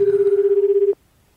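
A telephone ringback tone on an outgoing call, placed late, sounds as a single steady, fluttering buzz lasting about a second. It is heard clearly over the line before cutting off into near silence.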